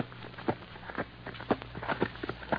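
A ridden horse's hooves clop in a steady rhythm, each hoofbeat a sharp knock about half a second apart, over a low background hum.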